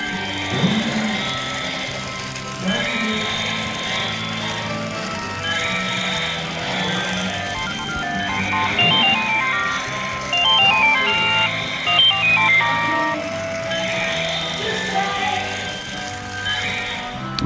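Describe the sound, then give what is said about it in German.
A battery-powered plastic toy dinosaur, waddling along with blinking lights and a blinking tongue it sticks out, grunts and rattles nonstop while a tinny, beeping electronic melody, the ringtone of a telephone attached under its belly, plays over it, steady and fairly loud, with no one talking. “das war das äh, Grunzen und ratternde Knattern von dem äh, vor sich hin watscheln und blinkenden Dinosaurier.”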